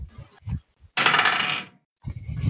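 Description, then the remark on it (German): A die clatters and tumbles across a hard tabletop for under a second, a bright rattling burst framed by quieter low rustles before and after. “Wo ist mein Würfel?”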